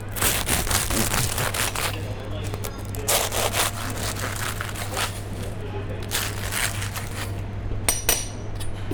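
Crisp, flaky crunching and crackling of a croissant being broken apart, continuous, with dense bursts of crackle over several seconds and a steady low hum underneath.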